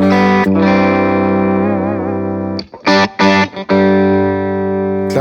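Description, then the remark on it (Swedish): Loud fuzz guitar on the bridge pickup through a copper-coloured Jim Dunlop Eric Johnson Fuzz Face pedal with all controls at maximum: a long buzzing chord that wavers slightly, a few short choppy stabs, then another sustained chord ringing out. No one speaks. “Det här är alltså stallmicken bara.”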